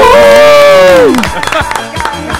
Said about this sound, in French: Applaudissements pour notre euh, invité.